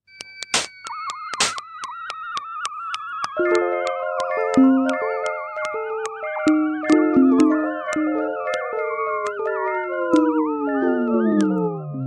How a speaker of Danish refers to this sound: Så hver gang man hører et af de her nærmest sådan klaverlyde, så er det et billede, der bliver taget fra Huygens